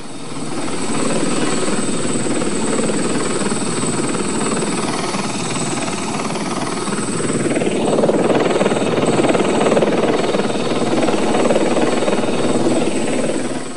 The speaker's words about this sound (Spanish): Por eso, el único testigo desde el aire era un helicóptero de un noticiario nacional que sin poder hacer nada